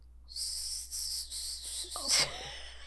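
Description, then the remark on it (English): Someone tries to whistle but manages only a thin, airy hiss, blown in several breathy pushes with no real tone, followed by a short voiced sound near the end. “I want to hear you give us a whistle.”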